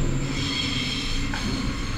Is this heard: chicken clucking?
no